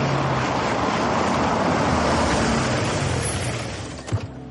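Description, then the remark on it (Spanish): A car draws near with a loud, steady rumble of engine and tyre noise that eases off toward the end, followed by a brief soft thump. No one speaks. “Llega el coche de Goodney.”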